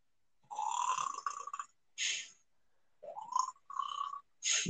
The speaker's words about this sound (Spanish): Profundamente. Por lo menos está durmiendo. Y roncando, obviamente